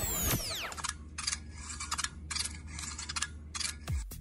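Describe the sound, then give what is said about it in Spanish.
A matraca rattle, played as the mystery sound on La Mejor FM radio, clacks in quick, grinding bursts of rapid clicks, stopping and starting several times over a steady low hum, with a brief sweeping whoosh at the start and no voices. “¿Es una matraca? ¡Es, una, matraca!”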